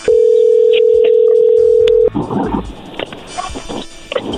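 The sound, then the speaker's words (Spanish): A phone line rings with a loud, steady, mid-pitched electronic tone lasting about two seconds, then cuts off and gives way to muffled rustling and indistinct sounds. “Bueno, a ver, ahí entró la llamada.”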